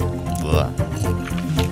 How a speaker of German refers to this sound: Und jetzt nehme ich beide Hälften und presse den Saft in ein Glas. Und jetzt nehme ich davon einen großen Schluck von diesem frisch gepressten Zitronensaft.